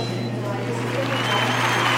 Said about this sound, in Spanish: Creo que esta característica del aplauso ya la tenía alguna otra aplicación de estas.